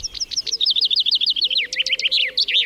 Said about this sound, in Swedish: Och nu när vi kan höra den sjunga så vackert på våren, då är det att den, eh, den raggar helt enkelt. Precis. Ehm, bofinken är en av de här fåglarna som, som sjunger väldigt mycket och som hörs i många miljöer ehm, och sjunger nästan hela dagen.